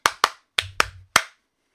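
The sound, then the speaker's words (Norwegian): A short jingle made of five sharp, loud claps in a quick rhythmic pattern, with a brief low bass hum beneath the middle claps, then silence. No one speaks. “Uh, først kjør jingle.”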